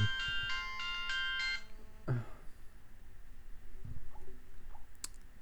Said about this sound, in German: Und scheiße, jetzt klingelt mein Telefon.